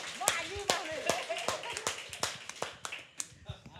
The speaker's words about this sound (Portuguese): E aí, galera, tudo bom? Vamos, Vamos aplaudir!